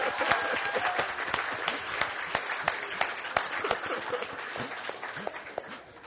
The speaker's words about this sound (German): Bis auf meine Kinder. Also ja, das wird durchaus ein Applaus wert.